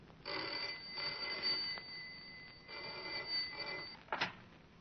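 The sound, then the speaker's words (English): A telephone rings in two long bursts with a short gap between them, its bright trilling bell clear, ending with a brief clatter as the receiver is picked up. “Yet the trouble first appeared as the commonplace ringing of a telephone.”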